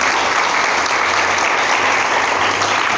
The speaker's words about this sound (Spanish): Denle un aplauso al Señor esta mañana, por favor.